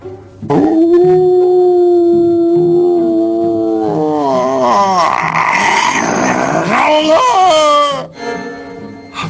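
At night in a courtyard, a hound lets out one long, loud, sustained howl that rises in pitch and wavers, breaking into a higher, strained cry near the end before cutting off abruptly.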